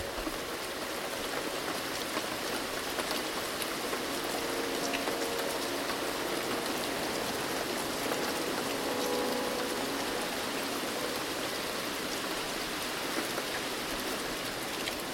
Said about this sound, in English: And as the raindrops fall, you feel lighter.